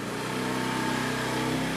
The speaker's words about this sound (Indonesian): motor lewat biarinnya lewat oh motor lewat ya